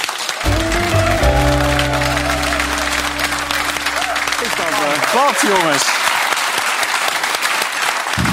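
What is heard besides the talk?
audience applause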